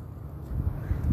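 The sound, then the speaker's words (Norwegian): A low, steady rumble of wind outdoors on a coastal path in Spain overlooking Benidorm and the sea, buffeting softly with slight swells in strength over a brief moment, no voices present. “Så her hører jeg lyder fra veien, vinden”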